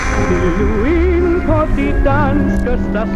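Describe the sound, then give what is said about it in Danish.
A crackly AM radio broadcast of the national station received on an AM receiver, with a warbling, distorted voice buried under steady hiss and static, loud and continuous throughout. “Der er noget med det knitrende der.”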